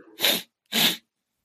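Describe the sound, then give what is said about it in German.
A voice imitates sniffling: two short, breathy snorts of air pulled up through the nose, separated by a brief pause, fairly loud and hissy with no speech. “Ja, aber das habe ich doch immer so die ständig die Nase hochziehen, aber, aber, auch, aber, aber nicht so wie ein kleines Kind, weil man kein Taschentuch hat, sondern einfach so fast schon chronisch einfach immer nur so zwischendurch.”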